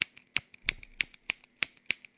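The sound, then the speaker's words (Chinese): A lighter is flicked repeatedly without catching: about six sharp, bright clicks at a steady, quick pace, each followed by fainter scratchy ticks, with no flame whoosh and no voices. “哎，这打火机不着，哎，就就不知道怎么的啊，这打火机就是不着。哎，你就听能听着声啊。”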